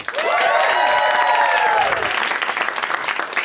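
An audience claps loudly and steadily for the comedians waiting in the back, with high whoops and cheers rising over the applause early on before easing into continued clapping.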